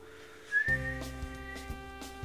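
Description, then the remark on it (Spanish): A person gives a brief, thin, sad whistle that slides slightly upward, then makes a pouting sound: a low, buzzy sustained tone that drones on steadily to the end. No one speaks. “es un silbido triste.”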